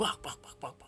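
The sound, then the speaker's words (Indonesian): A voice imitates flapping wings, like a chicken, with a quick run of about five breathy, percussive syllables, fairly quiet. “jadi antara gua dan temen gua ini yang paling belakang ngedengerin suara kepakan ini suara kepakan kayak ayam”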